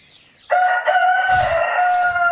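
A rooster crows loudly, one long strained cock-a-doodle-doo that starts abruptly and holds its harsh, tonal call to the end, with no talking over it.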